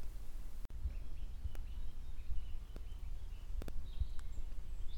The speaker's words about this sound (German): Ich hoffe wieder, man hört das Vogelzwitschern. Ich weiß aber nicht.